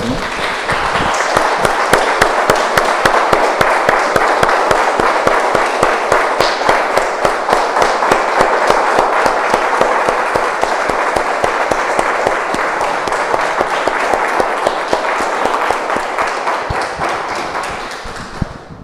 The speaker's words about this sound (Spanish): Vamos un aplauso, hermanos.